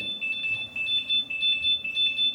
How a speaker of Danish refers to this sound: Okay, nu går der så en alarm.